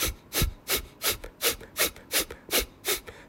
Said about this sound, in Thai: ก็คือเทคนิคนะครับก็คือหายใจออกหายใจออกแบบสั้นๆนะครับ